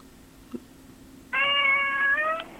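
animal, cat meowing

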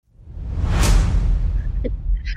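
sound effect, whoosh transition sound effect

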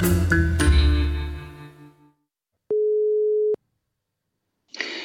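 signal or alarm, telephone ringing tone

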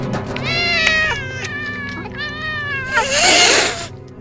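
animal, cats meowing and caterwauling

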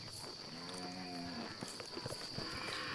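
animal, cows mooing

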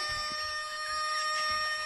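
bird, rooster crowing

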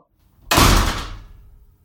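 household object, door slamming shut

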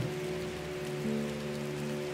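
nature, rain falling

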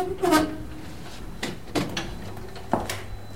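machine, elevator doors opening

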